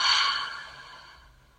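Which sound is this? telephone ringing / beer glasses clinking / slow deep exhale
slow deep exhale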